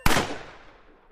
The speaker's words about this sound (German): Schnell wird es laut. Plötzlich ein Schuss. Schreie. Dann noch ein Schuss.